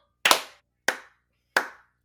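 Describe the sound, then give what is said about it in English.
Three sharp hand claps, evenly spaced about two-thirds of a second apart, each a crisp bright snap with a brief fading tail. The first is loudest, and nothing else is heard between them. “Clap.”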